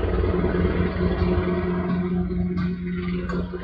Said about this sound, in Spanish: Los despido con el sonido de avión. Ah, no, es un helicóptero. Suena duro.